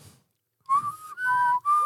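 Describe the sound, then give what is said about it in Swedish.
A person whistles a short tune, three clear sustained phrases stepping between pitches after a brief pause, with breathy air noise underneath. “Men Lät det för mig, det där är ju bara en vissling, eller?”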